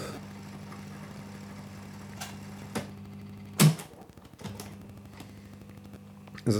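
A cassette dictaphone rewinds its tape to the very start during a dictaphone demonstration, with a steady, low motor whir, punctuated by several sharp mechanical clicks and clunks as buttons are pressed. Fairly quiet, with no voices.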